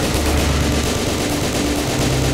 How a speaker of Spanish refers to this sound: El atracador llega hasta su coche, un Suzuki Vitara Blanco, y de él saca un subfusil. Vacía el cargador contra los agentes.